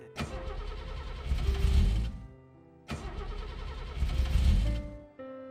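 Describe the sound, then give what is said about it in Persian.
A car engine cranks twice, each whirring attempt lasting about two seconds and rising slightly before cutting out, fairly loud, without catching. No one speaks. “اینم که روشن نمیشه بزن میشه”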